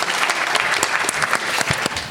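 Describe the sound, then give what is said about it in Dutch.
Steady applause from an audience, a dense, continuous patter of many hands clapping at a fairly loud, even level throughout, with no voices standing out. “Ah, Applaus voor jezelf.”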